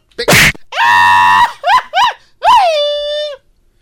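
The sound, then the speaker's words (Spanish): A person lets out a series of loud, strained yells: a harsh burst, a long sustained cry, two quick yelps, then a drawn-out falling shout, mimicking another person's signature yell. “vino, a copiar a Edwin, qué bar. Ya le, robó el grito.”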